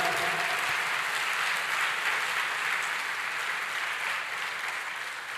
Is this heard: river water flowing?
no